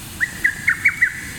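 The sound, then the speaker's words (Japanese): Five short, bright bird chirps repeat at a steady, quick pace, fairly clear against a low background rumble, with no one talking. “これ本当に鳥の声あ鳥の声だ鳥じゃな鳥ですね”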